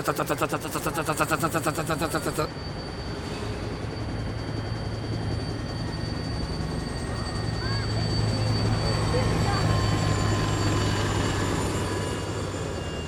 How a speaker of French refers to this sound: et un hélico qui s'est posé au milieu du quartier, frère.